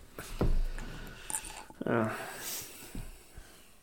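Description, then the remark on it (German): A nail clipper snips as someone does their nails, with several sharp, irregular clicks spread over a few seconds, accompanied by soft breathing and a brief murmured vocal sound. “Ich habe mir eben meine Nägel gemacht. Mhm. Das klingt wie eine Schreibmaschine. Ah. Ja. Und das ist mein Knipser.”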